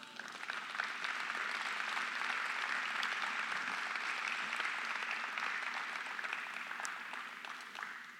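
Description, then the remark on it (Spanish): Sustained applause for God from an audience during a sermon, a dense steady wash of many hands clapping that holds at an even level throughout and tapers slightly at the end, with no one speaking over it. “Dale un aplauso.”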